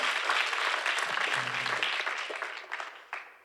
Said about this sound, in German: Das war so ein halber Applaus. Die, aber die haben es ganz gut gemacht, oder? Wollen wir lieber einen ganzen Applaus geben?